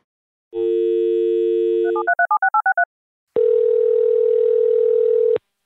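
A steady telephone dial tone, then a quick run of touch-tone dialing beeps, followed by a longer buzzing ring tone as a call connects to link people into one conversation. All clear, with no talking.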